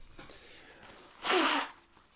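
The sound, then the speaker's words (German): A single forceful nose blow, a loud, breathy honk lasting about half a second, with faint rustling and quiet breathing before it. “Muss mal kurz die Nase putzen, aber.”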